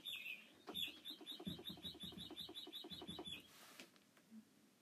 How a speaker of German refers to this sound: Als ähm, Vögelgezwitscher.